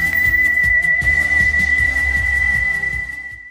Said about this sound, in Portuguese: De repente, ele toca seu apito e parte rumo ao desconhecido.